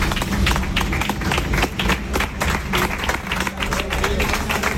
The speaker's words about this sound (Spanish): El equipo le daba los aplausos de esta manera porque no era para menos.